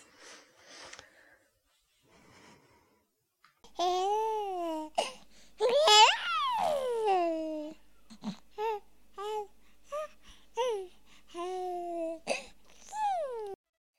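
A baby babbles and coos in a string of short, high, sing-song vocal bursts, fairly clear, with brief pauses between sounds and a few squealing rises in pitch.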